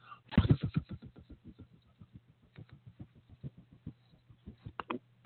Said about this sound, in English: I got myself a spinner right here. I got my finger right now. I'm spinning it. Can you hear it?